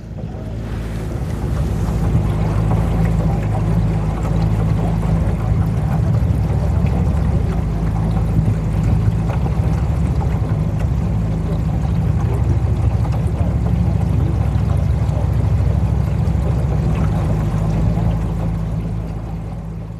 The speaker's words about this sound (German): Deine Nähe der Posada war auch äh, ein Fluss, der Rio Aquidawana. Und da sind wir auch am späten Abend mit dem Boot unterwegs gewesen.